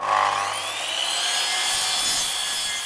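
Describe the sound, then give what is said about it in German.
A paludiculture plant building board is being sawn or rasped, a continuous dense scraping with a rising whine running through it for the whole few seconds, no voices. “Wenn es in Zukunft auf der Baustelle nicht mehr nach Gipskarton klingt, sondern nach Paludi-Bauplatte.”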